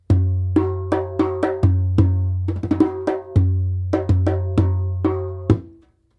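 A doumbek (darbuka) hand drum, held on the player's lap, plays a lively rhythmic pattern alone, mixing deep resonant bass strokes with sharp, bright slaps and quick flurries, loud, ringing out at the end.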